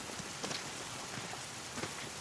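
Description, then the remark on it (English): Steady heavy driving rain pours down, a dense hiss with scattered louder drops and spatters hitting surfaces, continuous throughout with no voices. “marching miles into the Hunua Ranges through driving rain.”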